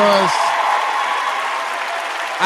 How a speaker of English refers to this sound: This is the final part of the history of the IND and the ISS. We have made it, and I know you all want to give a round of applause for that